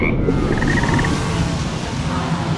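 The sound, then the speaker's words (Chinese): A dense chorus of frogs croaking continuously, many overlapping rough, rapid calls forming a loud, steady din, with a brief higher trilling call standing out early on. “乌龟、青蛙们，冲啊！”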